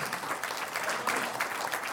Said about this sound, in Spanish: Un aplauso a los cantantes músicos de la iglesia.